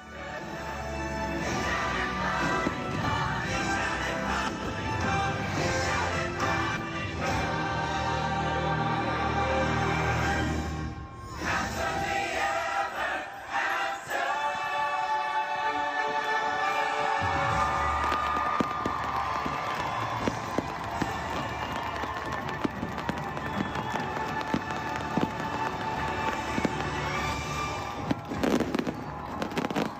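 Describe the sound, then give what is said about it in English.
The grand finale of the Happily Ever After fireworks show in front of the castle: continuous rapid bangs and crackles layered over booming music, with a crowd cheering in the background, loud and sustained throughout. “it's about 30 seconds here, of the grand finale of the happily ever after fireworks show that they're never going to do again as of October moving forward.”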